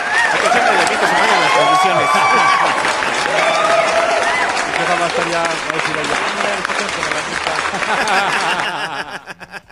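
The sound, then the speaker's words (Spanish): A crowd at a live Barroco Radio broadcast claps and cheers loudly and steadily, with whoops and laughter mixed in, the applause holding strong before thinning out into scattered claps at the end. “Aplausos para el señor”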